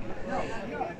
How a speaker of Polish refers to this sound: Tutaj ludzie ze sobą po prostu rozmawiają, co słychać pewnie w tle.